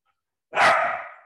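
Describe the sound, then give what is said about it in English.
A single loud bark from Julep, a pet dog, sharp at onset and trailing off over about a second, with no voices over it. “hi julep are you saying hi julep saying hi i knew she would say hi hush”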